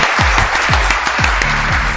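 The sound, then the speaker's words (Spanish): A dense wash of crowd applause for Johan Santana, who is in the radio booth, steady and loud throughout, with deep rhythmic thumps pulsing underneath about twice a second. “Oye, un aplauso para nuestro querido Johan Santana, ¿vale?”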